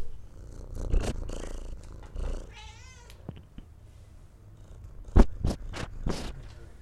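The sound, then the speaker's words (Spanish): Kittens meow in short, high bursts over a steady low purring while being fed, with several sharp cries clustered near the end and soft rustling between them. “Es que le van a alimentar a los gatitos y quiero agarrar a alguien diciendo miau.”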